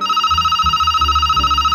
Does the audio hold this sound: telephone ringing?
yes